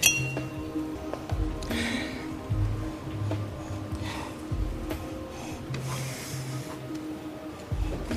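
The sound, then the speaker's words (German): Glass jar number 3, in a game of guessing its contents, clinks and knocks against a hard surface several times in close succession, bright, with faint rustling and handling noises around it and no voices. “Hier ist Glas Nummer 3.”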